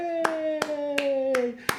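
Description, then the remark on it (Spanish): Five sharp hand claps at a steady, unhurried pace, loud and crisp, with a drawn-out voiced tone held underneath that slowly drifts lower in pitch. “Un fuerte aplauso para Provechito.”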